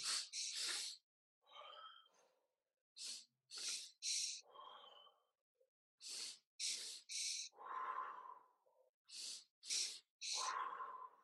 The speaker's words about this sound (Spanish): Y es bien sencilla. Sacas el aire y respiras en dos partes. Inhalas dos veces, exhalas todo. Y hazlo cinco veces y dime qué sientes.